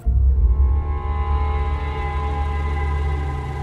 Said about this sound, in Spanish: El cadáver fue hallado a 70 metros de su vehículo, que quedó abierto con el motor en marcha y las luces encendidas.